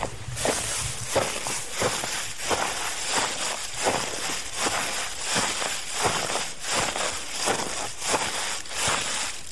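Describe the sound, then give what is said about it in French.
Foley footsteps simulating a walk through dead leaves in a forest, made by stepping on a pile of magnetic tape laid on ground with some soil and gravel: an even walking rhythm of rustling, crackling steps repeating throughout, and no voices. “Et puis si on la met par terre sur un sol avec un peu de terre, de gravier, tout ça, on pouvait marcher en forêt.”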